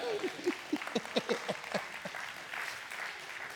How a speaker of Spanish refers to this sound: Dale un aplauso